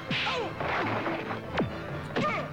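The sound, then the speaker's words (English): Sharp, snappy cartoon punch impacts crack out twice in quick succession, loud, in the Action Force cartoon, over a busy soundtrack of swooping tones and chaotic action noise. “I love the sound the punches make, the snap sound.”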